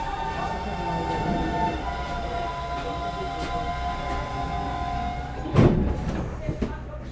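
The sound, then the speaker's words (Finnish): A steady rumble of a train riding on rails, heard by a passenger sitting aboard, with a sustained mechanical hum and a sharper clunk near the end, continuous. “Istun junassa ajatuksiini ja päivän kokemukseen uppoutuneena.”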